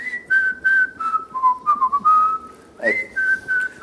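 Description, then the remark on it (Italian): Someone whistles a bright melody, the jingle of the TV programme Carosello, in short rhythmic phrases with sliding pitch changes, pausing briefly before picking the tune back up. No one speaks. “Lo puoi fischiettare, perché tu sei bravo a fischiettare.”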